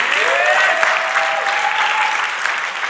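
A church audience applauds loudly and steadily to give glory to God, dense overlapping claps filling about three seconds without letting up, with a faint drawn-out vocal cheer or whistle rising through the middle.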